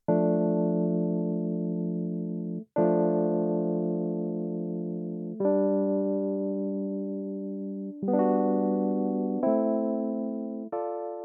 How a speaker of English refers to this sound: We'll hear the entrance of electronic keyboard, which takes over playing the main progression.